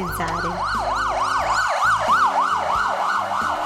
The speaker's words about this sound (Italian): È la sirena del nostro pronto soccorso linguistico